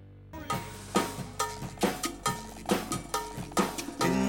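A rock song kicks off with a steady, clanking cowbell beat, loud and close, over driving guitar and drums, hitting in an even rhythm of about two strikes per second.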